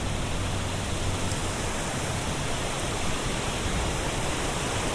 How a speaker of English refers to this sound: And today I'm going to be walking along the River Great Ouse in Buckingham, in England, observing as I go. So you can hear this fantastic roar of the water.